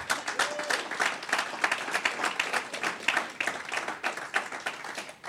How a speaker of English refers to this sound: Come on, clap your hands.